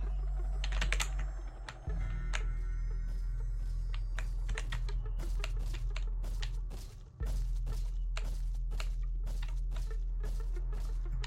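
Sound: computer keyboard being smashed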